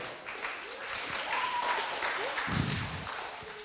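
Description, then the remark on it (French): A crowd applauds steadily, a dense wash of many hands clapping at an even level throughout, with a few faint voices calling out over it. “On peut encore l'applaudir.”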